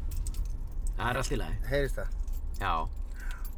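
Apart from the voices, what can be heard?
keys jingling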